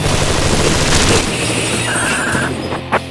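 Loud, sustained bursts of M16 rifle fire crackle in rapid succession, layered over a dense, rumbling battle din with steady droning tones underneath.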